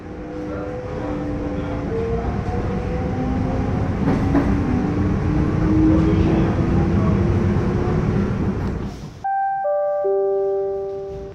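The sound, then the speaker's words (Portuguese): A train rumbles loudly into a station with faint screeching wheel tones, then the noise cuts off and a bright multi-note chime rings out over quieter platform ambience, followed by a Portuguese announcement telling passengers to mind the gap between the train and the platform when getting off. “passageiro, ao desembarcar, observe o espaço entre o trem e a plataforma.”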